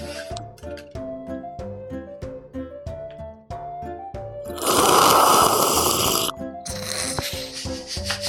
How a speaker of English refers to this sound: slurping into the mic